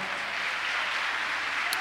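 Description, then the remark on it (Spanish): An audience claps steadily in applause to God, a dense, even wash of many hands with no pauses and no voices standing out above it. “¿Cuánto dan un aplauso a Dios por eso, amado hermano?”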